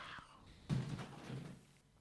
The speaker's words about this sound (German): Dann mach doch mal das Fenster zu.